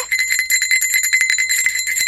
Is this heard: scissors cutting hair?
no